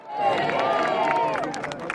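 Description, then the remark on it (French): Thousands of Britons in front of Buckingham Palace applaud and cheer to welcome their new sovereign, King Charles, many overlapping voices calling out over scattered clapping that stays fairly loud and steady throughout, with sharper claps near the end. “Devant le palais, des milliers de Britanniques attendent leur nouveau souverain et l'accueillent par des applaudissements.”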